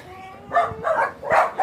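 Three quick, excited dog barks in a row, fairly loud, with short yappy bursts at an even pace and no talking, as three dogs greet a visitor outdoors on a play meadow.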